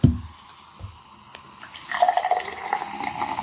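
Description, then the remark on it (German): Liquid pours steadily into a glass, a rising gurgling stream that starts after a short tap and builds toward the end, clear with no talking. “Ah, die Einschenkgeräusche, die unterscheiden sich schon.”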